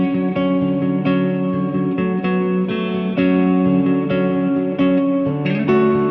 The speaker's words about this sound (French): And what I love about this pedal, even if you set up the euh, compression maximum, doesn't kill the sound. Alors là, il va mettre le son à fond, enfin le, le compresseur à fond, et ça donne ça. C'est assez cool aussi.